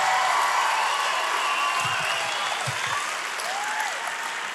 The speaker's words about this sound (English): You take that concrete, those LeBron's, and give Boone a big round of applause right now.